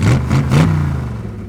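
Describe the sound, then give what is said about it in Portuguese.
A car engine revs loudly in three quick bursts, each blip pushing the pitch up, then drops back to a steady, throaty low rumble. Prominent, with no voices. “O macho que tem um carro de macho”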